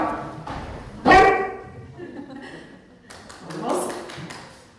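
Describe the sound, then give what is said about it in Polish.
A dog lets out one loud, sharp bark after being asked to speak up, standing out clearly amid people talking. “ponieważ został przedstawiony też pies, to niech on się odezwie, żeby coś powiedział.”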